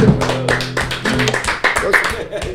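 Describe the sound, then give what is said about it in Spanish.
A short burst of applause: a few hands clapping quickly and unevenly at a steady loudness, with voices sounding underneath the claps. “Es un himno, es un himno. Aplausos.”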